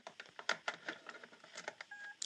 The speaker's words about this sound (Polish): O, i słyszeli, usłyszeliśmy taki dźwięk. Zaraz włożę jeszcze raz, żeby go usłyszeć lepiej. I ten dźwięk oznacza to, że maszynka się ładuje.